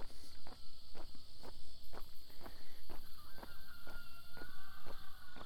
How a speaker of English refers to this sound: There you go. There's a rooster. Probably sees my little headlamp.